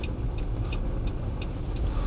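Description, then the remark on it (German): A car drives along an uncleared, slippery snowy side road early in the morning after snowfall, its steady low engine and tire rumble filling the interior, with a faint, regular high-pitched crunching or ticking repeating about three times a second. “Vortriebsmäßig geht das Auto wie es soll, aber beim Bremsen ist sofort das ABS an.”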